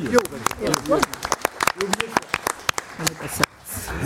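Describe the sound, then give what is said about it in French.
Scattered, irregular handclaps ring out as an audience applauds Nicolas Martin, former producer of France Culture's science programme, sharp bright smacks spread across four seconds while voices talk and murmur underneath. “On l'applaudit.”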